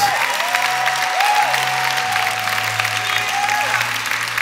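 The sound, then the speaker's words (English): A church audience claps hands in worship of Jesus, a dense, continuous wash of applause with sustained organ or keyboard tones gliding underneath and no voices standing out. “Can somebody clap hands and worship Jesus?”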